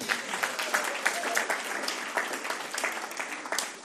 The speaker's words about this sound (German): Haben wir nochmal einen großen Applaus für Stefan.